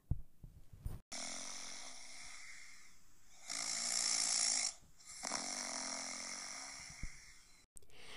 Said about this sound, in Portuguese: Niame, o deus do céu, continuava roncando, sem parar.